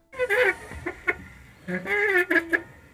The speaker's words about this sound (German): Und was man da leise quietschen hört, ist ein Globus, der sich dreht. Ich habe ihn heute mit ins Studio genommen